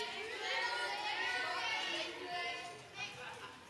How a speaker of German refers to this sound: Und ihr Kids dürft noch mal gerne gerade reinrufen, welche fünf Sinne uns Gott geschenkt hat. Das war ja die Aufgabe auf eurem Clipboard. Ruft mal ein bisschen rein. Welche Sinne hat Gott uns geschenkt?